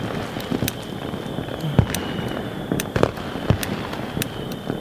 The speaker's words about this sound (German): nee, ich, äh, jetzt zünde ich meinen Feuerwerkskörper. Mit Wunsch. Der Wunsch soll ja in Erfüllung gehen, deshalb darf ich ihn nicht verraten.